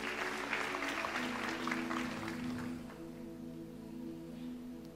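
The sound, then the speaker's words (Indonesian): A church audience claps for the name of the Lord in a dense, steady wash of applause that gradually thins and softens toward the end, with a low sustained hum underneath. “Berikan tepuk tangan bagi nama Tuhan.”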